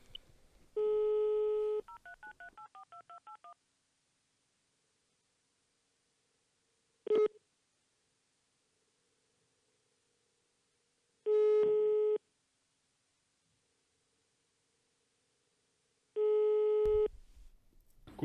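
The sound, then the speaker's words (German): A short tone, then a quick run of telephone keypad beeps as a number is dialed, followed by a ringing tone pulsing about once every four to five seconds with silence between. No one speaks. “Dann klingen wir mal durch. Klingen wir jetzt einmal durch.”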